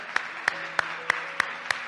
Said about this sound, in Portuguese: Assim como estão, por que não dás um aplauso ao companheiro? Por favor. Dê um aplauso a Jesus Cristo, Ele merece.